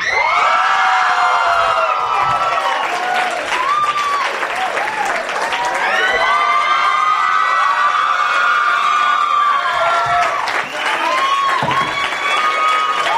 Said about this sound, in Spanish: Y bueno, eh, vamos a comenzar ya este desmadre y le voy a eh, un aplauso para mis invitados de hoy